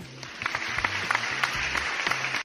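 A burst of applause, dense clapping that holds steady for a couple of seconds before cutting off abruptly, with a faint low hum underneath.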